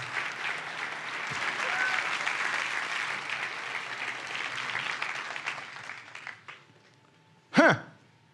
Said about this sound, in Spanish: ¿Por qué no le doy un aplauso a los cámaras?